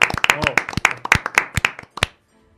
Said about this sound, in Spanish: Un aplauso aquí en la radio.